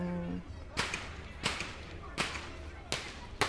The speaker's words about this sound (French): Les dernières échoppes ont fermé des enfants au fond de la place continuent à jouer avec des pétards.